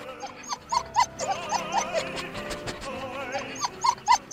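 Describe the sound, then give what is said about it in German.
A dog lying under a grand piano howls plaintively in long, wavering whines, rising and falling over several seconds, with short yelping cries near the start and end, fairly loud with no one talking. “vielleicht, vielleicht habe ich ja auch so hässlich gesungen, sodass es irgendwie, es klang schon irgendwie ein bisschen leidend, aber bei einem Hund weiß man ja nie so genau, wenn er jault, was das dann eigentlich jetzt heißen soll”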